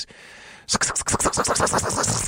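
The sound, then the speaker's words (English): After a brief quiet hiss, a voice imitates a person crawling around on a roof like a spider, with a quick run of about ten rhythmic, scratchy shuffling bursts, fairly loud. “So this is the sound of me crawling,”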